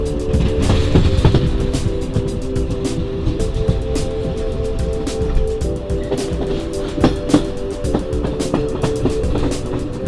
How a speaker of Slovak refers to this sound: pokračovali na ďalší vlak k našej poslednej zastávke, na nádraží Veleslavín